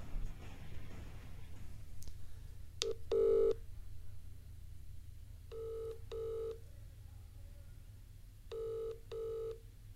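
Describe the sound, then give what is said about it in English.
A few quick clicks of a phone being dialed to call someone back, then an outgoing ringing tone that repeats in double bursts, brr-brr, with pauses between, over a low steady hum. “Call Ben back and I'll face some fucking medicine.”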